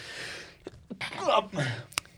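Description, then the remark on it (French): A person sneezes once: a breathy, voiced build-up followed by a sharp, abrupt burst of noise, with quiet background around it. “à tes souhaits.”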